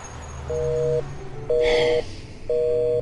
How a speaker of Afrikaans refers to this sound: Hoe dit daai ou kan met haar praat as haar telefoon gedurig beset is.